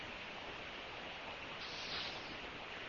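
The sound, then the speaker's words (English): Steady, quiet hiss of static over a phone line from a fan or computer fan running during a heat wave in San Diego, a continuous band-limited rush with no voices, holding level throughout with only a slight swell near the middle. “the heat wave in San Diego forcing the use of a fan or the computer fan to, to try and keep things uh, cool.”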